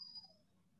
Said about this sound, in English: sorry, uh, that's the dog there whinging.